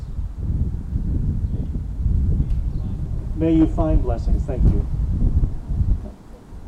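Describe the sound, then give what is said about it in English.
Steady, loud low wind rumble buffets the whole recording outdoors, gusting unevenly and blowing paper cards all over the place, while a person speaks briefly partway through; the wind dies down sharply near the end. “our cards are blowing all over the place here”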